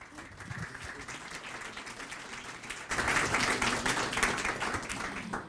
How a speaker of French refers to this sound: Euh, merci beaucoup. Donc, vous pouvez applaudir.